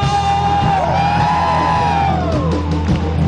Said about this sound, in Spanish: Levante su voz en esta hora y de un grito de júbilo.